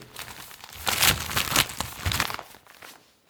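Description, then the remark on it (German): Paper is crumpled and rustled in a dense burst of crackling, busiest in the middle and tapering off toward the end, with no talking over it. “Hast du eine Zeitung? Ich habe hier. Ja. Es, ja. Ich habe hier hab sonst ich. Papier.”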